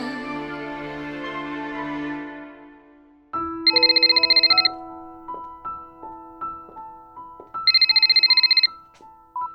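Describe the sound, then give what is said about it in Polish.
A telephone rings with a tinkling melodic ringtone, broken by two bright trilling bursts a few seconds apart, loud, with no talking, just after a sustained tone fades out. “Jak się cieszę, że dzwonisz.”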